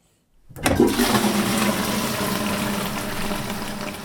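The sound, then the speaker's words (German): A toilet flushes: after a short silence, a loud gush of rushing water, up to 40 litres of Basel drinking water from the cistern, starts abruptly and keeps draining steadily with a broad hissing roar until the end, with no one speaking. “Bis zu 40 Liter besten Basler Trinkwassers gehen hier der Rido Das kann ich ändern, indem ich die Spülung rasch zurückschalte oder mir vom Sanitär endlich mal einen neuen Spülkasten installieren lasse, der weniger Wasser braucht.”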